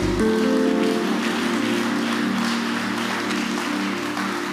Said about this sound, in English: You can clap unto every prophecy.